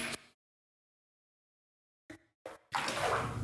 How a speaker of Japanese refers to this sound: このなんだろうお風呂の水の音とかもね湯沸かしの音とか楽しんでもらえればいいのかなと思ってます